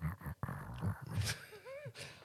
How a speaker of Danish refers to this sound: det var en, det var en kat, heldigvis.